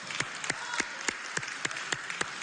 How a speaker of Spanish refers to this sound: Que póngase de pie, pastor. Vamos a dar un aplauso.